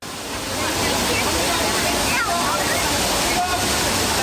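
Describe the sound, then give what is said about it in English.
Loud, steady rush of water cascading and splashing in the Trevi Fountain, continuous throughout, with faint indistinct voices barely audible beneath the roar, as a woman fills her water bottle in the fountain. “She's filling up her water bottle in the Trevi fountain.”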